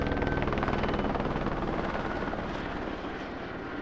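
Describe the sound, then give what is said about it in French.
A rescue helicopter approaches a mountain rock face on a Saturday morning, its rotor thumping steadily, a dense, rapid chopping drone over broad engine roar, holding loud throughout with only a slight easing toward the end. “Le samedi matin, un hélicoptère des secours approche de la paroi.”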